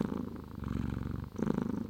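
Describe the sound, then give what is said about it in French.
A domestic cat purring, a steady low rumbling drone with a gentle rhythmic pulse, breaking briefly before resuming on the next breath. No voices, just the continuous soft vibration. “Le ronronnement d'un chat, dont les fréquences sonores basses se situent entre 20 et 50 Hz, abaisse notamment la tension artérielle.”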